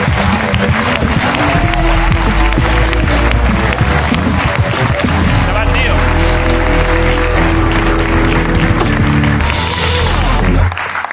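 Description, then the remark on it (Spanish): An audience applauds Damián Quintero, breaking into loud, sustained applause, a dense steady clatter of clapping that lasts about ten seconds, with a tonal, music-like layer running underneath before it cuts off. “Un aplauso para Damián Quintero.”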